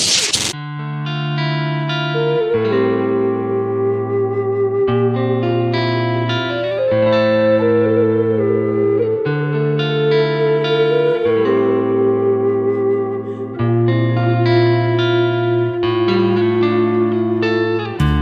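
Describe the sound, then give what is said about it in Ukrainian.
A Ukrainian rock song plays steadily on the radio station Radio My z Ukrainy, with thick, effect-laden guitar chords shifting every couple of seconds over a sustained low bass, loud and dense throughout with no speech. “Далі слухаємо трек в ефірі Радіо Ми з України”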